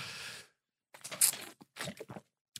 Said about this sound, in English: Number four, and let me get another sip of water here, Mr. Producer.